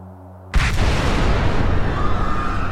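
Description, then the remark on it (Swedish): After a moment of low hum, a sudden loud explosion bursts in and is followed by a sustained, heavy rumbling roar that stays loud to the end. No voices are heard. Explosions at the Stade de France stadium during a France–Germany men's football friendly match. “Explosioner och höga smällar Inne på arenan Stade France möter Frankrike Tyskland i en vänskapsmatch i herrfotboll.”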